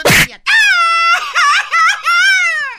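A man lets out a loud, drawn-out theatrical wail, breaking into several wavering sobbing bursts after a short noisy burst at the start, like exaggerated mock crying rather than a Mexican grito.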